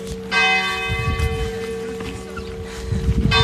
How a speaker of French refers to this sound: Oh, super, écoute les cloches.